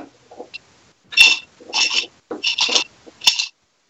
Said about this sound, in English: Wait, hold on, real quick. Are, do you guys hear the dog with the bone? Oh yeah, that, absolutely.